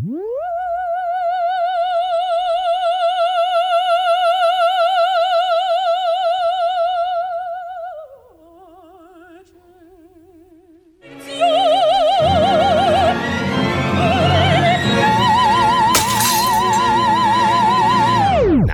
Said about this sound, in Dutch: dit is in ieder geval een goed, goed voorbeeld van vibrato. En hoe dat zich maar dus inderdaad over dat eh, orkest heen dendert